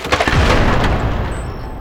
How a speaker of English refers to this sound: I scramble out of the way as this huge door, my own front door, comes crashing down on me.